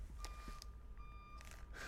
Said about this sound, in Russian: Ну, в общем, что-то у нас пищит в студии. На- наверное, все перестало. Очень странно.